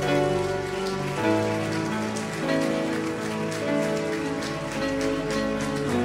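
Loud, sustained applause crackles steadily for several seconds over held musical tones, with no one speaking.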